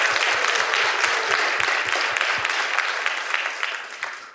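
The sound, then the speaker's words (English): A crowd applauds steadily for about four seconds, a dense wash of many hands clapping at once that stays loud throughout and tapers only slightly toward the end. “Yes, give him a round of applause, folks.”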